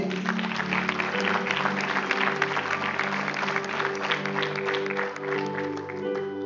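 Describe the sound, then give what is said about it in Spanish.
A crowd applauds steadily for several seconds, dense overlapping claps forming a continuous wash, with a sustained low tonal hum or music bed underneath. “Haz un aplauso a”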